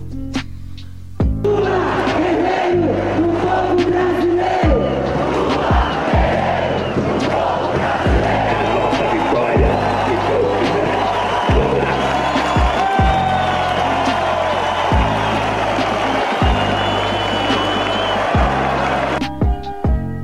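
A large crowd cheers and chants loudly at a political rally during Lula's last speech before he was imprisoned, a dense, continuous roar backed by steady rhythmic drumbeats that pulse throughout before cutting off abruptly.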